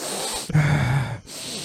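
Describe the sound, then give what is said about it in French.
A person imitates sniffing a plate of homemade poutine: one drawn-out, breathy nasal inhale, fairly loud, lasting under a second with quiet before and after. “J'ai passé cinq minutes à sentir son plat sans y goûter.”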